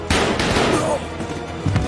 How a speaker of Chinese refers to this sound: 警卫立刻开枪击毙了西叔